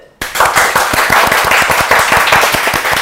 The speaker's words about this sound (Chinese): 好，欢迎这个赵老师来。 掌声如雷